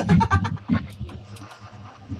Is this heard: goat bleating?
yes